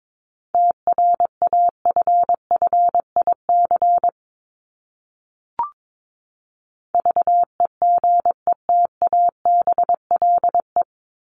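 A steady mid-pitched tone keyed on and off in quick dots and dashes, Morse code sent at 22 words per minute, spelling one English word from a list of common words ranked 1251-1500, in two runs separated by a pause with a single click between them.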